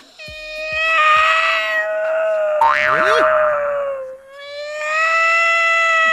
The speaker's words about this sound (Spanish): Este video se trata de un gatito que llora mientras su amo hace algo indebido para él. El gato llora desconsoladamente al lado de la mesa.